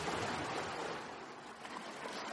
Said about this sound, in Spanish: ¿Estás realmente, vamos a poner aquí un sonido agradable, así como las olas del mar, para que te lo pienses?